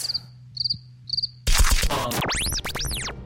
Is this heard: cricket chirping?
yes